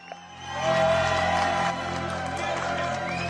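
A crowd claps for John Travolta after a piece from the Hairspray soundtrack. The dense wash of clapping swells quickly, holds steady for a couple of seconds, then eases slightly, with a low steady hum underneath.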